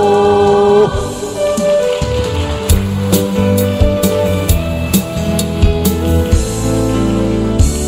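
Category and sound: crowd, audience applause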